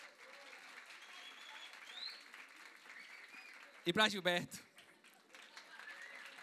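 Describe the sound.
An audience applauds volunteers with steady, dense clapping throughout, while a voice speaks over it and a brief loud cheer or shout bursts out midway.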